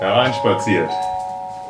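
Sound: doorbell ringing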